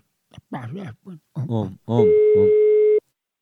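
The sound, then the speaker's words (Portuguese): A man speaks briefly, then a single steady telephone ringing tone sounds for about a second, loud, with his voice briefly overlapping its start, as he places a phone call. “Vou ligar agora.”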